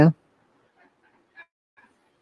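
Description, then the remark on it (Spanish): A voice imitates a billionaire's debarked dog, its vocal cords removed, straining to bark: after a sharp opening burst come a few faint, hoarse, breathy huffs spaced irregularly, with almost no tone behind them. “Le quitaron las, las cuerdas. No quieren que ladren. pero él quiere.”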